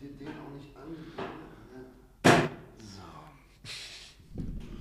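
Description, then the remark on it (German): A wobbly chair creaks and knocks as someone shifts their weight, with one sharp, loud creak midway and a softer scrape later, beneath ongoing conversation. “Ich muss einmal, bevor der Stuhl zusammen... Ja, ich merke das gerade.”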